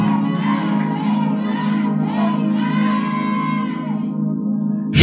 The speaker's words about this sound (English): Can that amen resound like thunder? Shout it three more times.